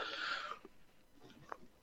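A big, breathy yawn, a drawn-out airy exhale that fades away into near quiet with a few faint small noises after it.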